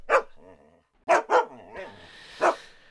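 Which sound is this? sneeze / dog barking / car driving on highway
dog barking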